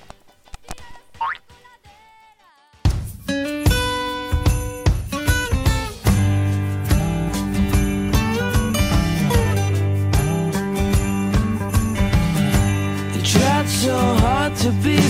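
A rock song from the Spider-Man 2 soundtrack bursts in loud and full after a few seconds of sparse, quiet sounds, then drives on steadily with dense instrumentation and no talking.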